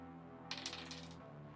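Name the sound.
six-sided die being rolled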